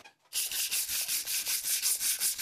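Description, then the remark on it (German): Steady back-and-forth scraping of sandpaper rubbed by hand over wooden frames to remove their paint, fairly loud, in a regular rhythm of about ten strokes after a brief silent start. “Ich schleife einfach den Lack von ein paar Rahmen.”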